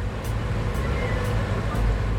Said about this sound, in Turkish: yeniden Edirne kapıya doğru ağır ağır akan trafiğe bırakmıştık kendimizi.